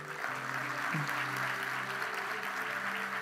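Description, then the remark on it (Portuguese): An audience claps steadily and continuously in applause for the women, a dense wash of applause at an even volume, with low sustained musical tones humming underneath. “Vamos dar um aplauso ao pelo vento das mulheres?”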